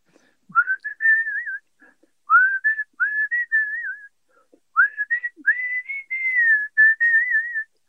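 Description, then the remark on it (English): A person whistles a short melodic tune, clear, in three phrases separated by brief pauses, with gliding, wavering notes and no talking. “Um, you've probably been asked a million times, but can you give us a quick blast of the whistle now?”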